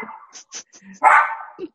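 Benji, a foster dog, barks loudly, a sharp yelp following a few shorter yips, with faint background sounds and no voices.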